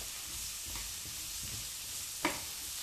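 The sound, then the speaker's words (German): Asparagus pieces sizzle steadily in a hot frying pan, a continuous crackling hiss with a few soft clinks and one brief louder knock near the end. “Also, dann hören wir jetzt schon mal die Spargel. Gehen hier schon mal ziemlich gut ab”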